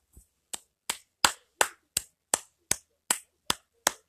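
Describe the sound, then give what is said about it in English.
A single person claps about eleven times in a steady, evenly spaced rhythm, each clap sharp and crisp, in appreciation of a Johnny Gargano wrestling match. The first clap is softer than the rest, with no talking. “You can't help but clap for it.”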